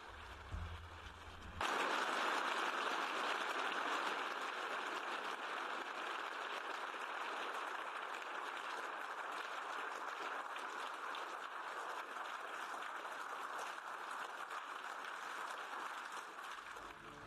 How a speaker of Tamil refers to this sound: March ஒன்றாம் தேதி காணொளி வாயிலாக ஐரோப்பிய ஒன்றியத்தில் உரையாற்றினார் ஜெலன்ஸ்கி அங்கிருந்த அனைவரும் எழுந்து நின்று கைத்தட்டினர்